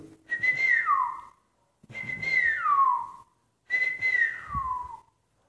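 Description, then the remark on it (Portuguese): Three clear whistled phrases, each a rising-then-falling birdlike call, repeated at a steady pace with short pauses between. A person whistles alone, imitating little birds chirping, moderately loud. “O vento bateu com a brisa do ar, lhe levou bem alto a voar, bem alto e os passarinhos viram ele voar e assobiaram para ele.”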